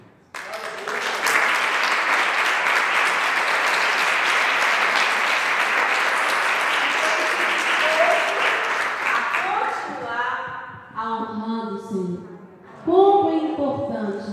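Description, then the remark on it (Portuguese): A church audience applauds in a loud, steady wash of clapping for about ten seconds, then it fades as a man's voice begins speaking in Portuguese over the last scattered claps. “E eu quero aplaudir a vida de cada um de vocês.”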